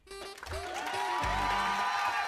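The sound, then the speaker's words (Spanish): An audience claps in a dense, steady wash that holds for a couple of seconds, blended with sustained tonal music and a low rumble. “Qué gran aplauso, señoras y señores.”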